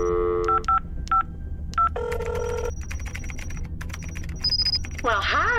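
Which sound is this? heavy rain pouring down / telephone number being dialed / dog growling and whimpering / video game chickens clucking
telephone number being dialed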